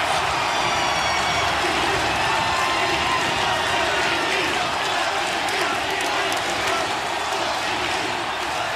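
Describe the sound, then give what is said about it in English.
A large wrestling crowd cheers and applauds for wrestler Rob Van Dam in a loud, continuous roar, with dense clapping and shouting blended together and holding steady for about nine seconds. “Let's hear it for Rob Van Dam. Yeah.”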